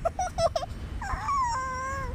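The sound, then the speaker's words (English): Four quick, high yelps followed by a long, wavering whimpering cry that slides downward in pitch, close and fairly loud, with no one talking. “Over …'s crying.”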